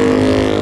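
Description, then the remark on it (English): A racing motorcycle, Adam McLean's number 56 Ripley Land machine, roars loudly as it goes fastest, a steady high-revving buzz with strong harmonic drone that holds constant through the brief moment, no voices over it. “Then 56 just goes fastest. Listen to that.”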